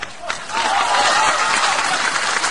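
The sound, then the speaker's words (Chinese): An audience breaks into applause after a brief quieter moment. The dense, steady clapping swells quickly and holds at a loud, even level to the end. “让我们掌声有请本期艺术人生的主人公冯巩。”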